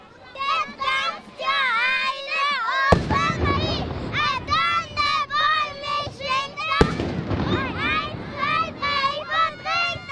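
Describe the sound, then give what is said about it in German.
Two booming black-powder salute shots ring out a few seconds apart, each a sharp crack followed by rolling noise, over a lively crowd opposite the Münster, with children chattering and shouting throughout as they wait for the dancing Wild Man. “Die Böllerschüsse sind schon von weitem zu hören.”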